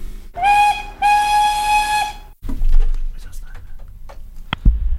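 Two loud, sustained steam whistle blasts over a breathy hiss, the second longer than the first, then a rough, rumbling, hissy noise with a few sharp clicks near the end.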